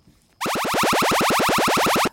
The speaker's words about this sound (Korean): 예, 외계인이 지금 레이저 공격하는 소리입니다. 외계인 공격 소리가 어떤 음악에서 나올 겁니다.